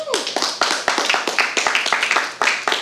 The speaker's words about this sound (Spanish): Amén. Amén. le puede dar un aplauso a Dios.